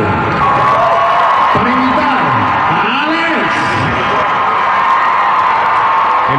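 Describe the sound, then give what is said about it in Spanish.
A loud, continuous crowd roar of cheering and whoops fills the whole stretch, with rising and falling shouted voices over a steady wash of audience noise, likely including applause. “Entonces, hoy esta noche quiero que brindemos un fuerte aplauso y e invitemos con el aplauso”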